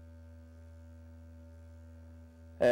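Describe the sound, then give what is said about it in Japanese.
A steady electronic tone from a signal generator, played into a can lined with cork powder, hums continuously with buzzy overtones at a modest level as its frequency is matched, then a sudden louder, harsher burst erupts at the end as the volume is turned up. “缶の中にコルクの粉が引いてありますここに音を入れてみたいと思います発信機の電源を入れてみますそして振動数を合わせます次に音量を上げてみます”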